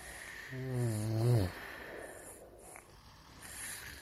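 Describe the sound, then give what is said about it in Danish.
A sleeping child gives a single drawn-out snoring snort, low and buzzy, that rises and cuts off after about a second, leaving soft hissy background with faint chirpy high tones. “Og så sover alle de nysgerrige børn sødt i deres senge.”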